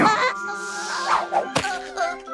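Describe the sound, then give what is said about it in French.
A single dull thud of Willy sliding off a leaf and landing head first, short and fairly loud, cutting through a sustained, wavering tonal backdrop. “Atterrit la tête la première Pauvre Willy oh.”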